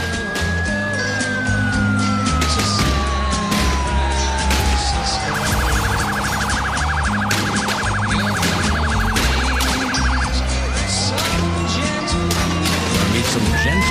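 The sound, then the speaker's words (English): A song plays with gunshots added into the mix to evoke what one would hear visiting San Francisco, sharp cracks popping repeatedly over the music while wailing police sirens rise and fall throughout the mix. “And what I did was I added in what you would honestly hear in San Francisco if you were to go visit there. All the gunshots and.”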